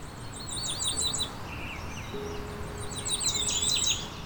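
A Cape May warbler sings two short, very high-pitched bursts of thin, rapid notes, separated by a pause, against a steady background hiss of outdoor ambience.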